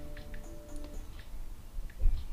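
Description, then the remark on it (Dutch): Light, irregular clicks of typing a text message on a phone touchscreen keyboard, about half a dozen soft ticks spaced unevenly over a low steady background hum, with no talking. “Dus typ wat tekst.”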